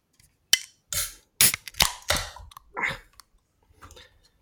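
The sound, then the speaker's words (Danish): A beer can being opened: a series of sharp metallic clicks and pops with short bursts of fizzing hiss, fairly loud and irregular, followed by fainter rustles. “er så svag, at jeg næsten ikke kan, kan åbne en dåse.”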